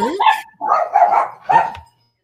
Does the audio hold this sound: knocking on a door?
no